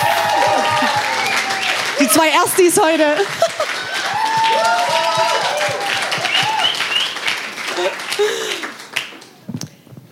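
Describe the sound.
An audience at a church service applauds steadily with a dense, sustained wash of clapping that thins out near the end, while a person talks over it.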